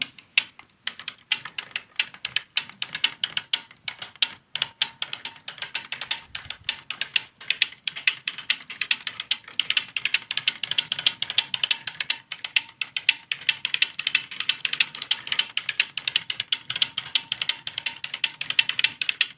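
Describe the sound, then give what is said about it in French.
A sock knitting machine being cranked to knit 3-1 ribbing on the leg of a sock in sock yarn, giving a steady, rapid stream of dense mechanical clicks and ratcheting ticks that keeps an even rhythm throughout, with no voices. “Là, je fais les côtes 3-1. Et voilà, donc c'est le rythme que vous entendez.”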